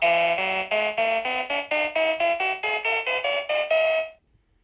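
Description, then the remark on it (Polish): A bright, buzzy pocket synthesizer tone made from a sample of a human voice plays a quick run of about fifteen stepped notes, rising and falling in pitch, each short and evenly spaced, loud, then stops into silence. “To wszystko w ogóle powstało z mojego głosu, tak? Takie coś powstało z głosu ludzkiego.”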